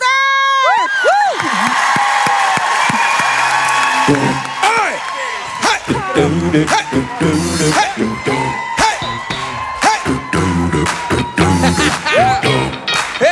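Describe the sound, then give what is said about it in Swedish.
A wedding party crowd cheers loudly as a singer is introduced to get the guests dancing, with whoops and rising shouts over steady clapping. After a few seconds a thumping music beat starts underneath the continuing cheers. “Nu ska ni få dansa, för jag tänker istället för brudvals så kallar vi in en person som är väldigt bra på att dansa och som ska få oss alla att dansa, nämligen en stor applåd för …!”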